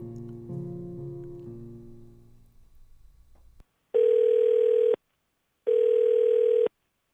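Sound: phone ringback tone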